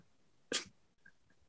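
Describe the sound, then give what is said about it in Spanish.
A single sharp sneeze bursts out, loud and brief, followed by a couple of faint clicks amid otherwise quiet. “Eh, es que ahorita se escuchó. Salud, eh.”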